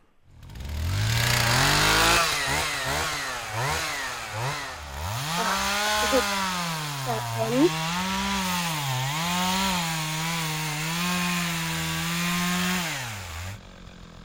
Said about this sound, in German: Das könnte eine Motorsäge sein. … ist Motorsäge richtig? Jawohl, zweiter Punkt.